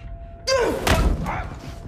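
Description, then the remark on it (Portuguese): A single heavy thump of a kick lands sharply, with a short strained vocal grunt just before it and a dull rumble trailing off afterward. “Coño con la patada me cago en tu puta madre.”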